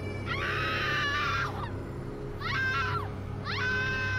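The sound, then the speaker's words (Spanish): Three eerie, unearthly screams in quick succession, each high and wavering before sliding downward, the first one longest, over a steady low rumble with no talking. “A punto estaba de dar una cabezada leyendo uno de esos capítulos cuando escuché un grito sobrenatural.”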